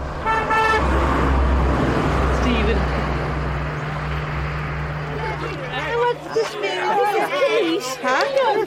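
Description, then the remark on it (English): A car horn toots briefly at the start over steady traffic rumble and a low hum as neighbours drive past a house hooting their car horns; then several people chatter and call out excitedly. “Um, and of course, there was one's neighbours going past in cars, and they all hooted like the devil.”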